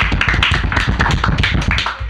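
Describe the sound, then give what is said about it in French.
A steady burst of applause from a group welcoming a new columnist on the show Les Pierres Brutes, many overlapping claps forming a dense, crackling patter that holds at an even, fairly loud level for about two seconds with no voices. “On l'applaudit.”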